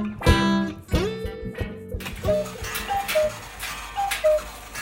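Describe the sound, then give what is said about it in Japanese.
An antique cuckoo clock, one of many on the walls of a shop, ticks with steady clicks mixed with a couple of ringing, bell-like metallic tones early on and faint higher chiming notes, with no one talking. “アンティークの鳩時計は昔オークションに出していた際は本州からも買い手があったみたいですよ。”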